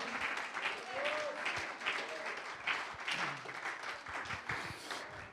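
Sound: applause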